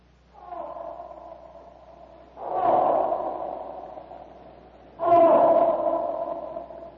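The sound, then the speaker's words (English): The elephant Black Maluk snorts and rumbles in three rough, throaty bursts, each louder than the last, the final two swelling up sharply and fading slowly, as it shuffles swiftly with riders on its back through dark, deserted streets toward the nearby city wall. No talking. “they will find only what they expect to find an elephant that has escaped from the paddocks”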